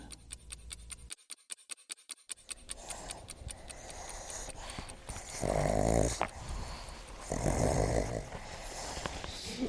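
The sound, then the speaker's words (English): Pugs snort, snuffle and grunt in a rapid, rhythmic burst, then shift into louder rasping, snoring-like breaths and playful growls as they play-bow, sniff each other and scuffle together. “the pugs are play bowing each other sniffing each other's butts, making noise is normal.”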